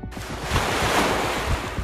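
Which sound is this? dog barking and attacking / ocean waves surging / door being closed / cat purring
ocean waves surging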